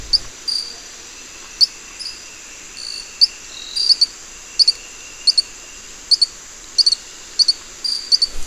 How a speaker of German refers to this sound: Aber schön ist eben, dass er auch rein von den Lauten, die er von sich gibt, eher einem Insekt oder einem, einem dieser Baumfrösche dort ähnelt.